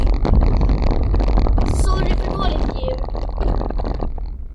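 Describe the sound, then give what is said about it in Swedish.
A steady, loud low rumble fills a car interior while people sit in the car on the way to a meetup in Skåne, the constant drone of engine and road noise, with a person talking in Swedish over it throughout. “Det, det låter lite för som sagt, vi sitter i bilen”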